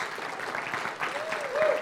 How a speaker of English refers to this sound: Her and her husband have come from Rhode Island um, with the Coast Guard. So we want to give, give them a round of applause and thank you so much for your service.